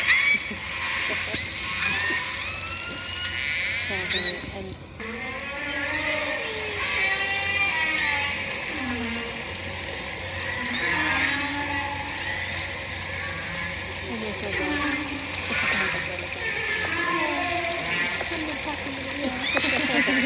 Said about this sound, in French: Vous entendez là, c'est la complainte de la baleine qui veut profiter du festin. C'est un son très profond.